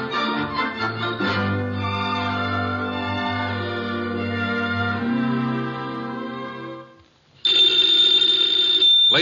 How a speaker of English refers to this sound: and gentlemen, the ringing of that phone bell brings you mystery, adventure.